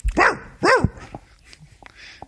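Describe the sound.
A person imitates a dog with two loud barks in quick succession, each with a rising-then-falling pitch, followed by a few faint, brief noises.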